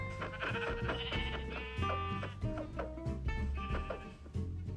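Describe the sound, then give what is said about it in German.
Bleats of a green sheep in a video game ring out over a dense, continuous bed of background music and game sounds, fairly loud, with several wavering bleating cries across the few seconds. “Da ist noch ein grünes Schaf.”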